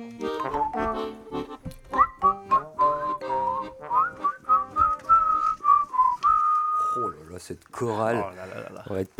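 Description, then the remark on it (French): A whistle is blown in a wavering, tune-like run of notes that slide up and down before ending in one long held tone, with people talking around it. “J'ai des sifflets pour la prochaine manif, si tu veux.”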